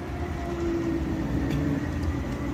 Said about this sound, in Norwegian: Våte høstblad ligger klistra til asfalten idet Oslo-trikken suser langs Stortingsgata.